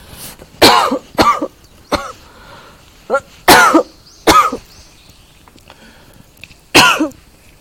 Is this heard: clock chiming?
no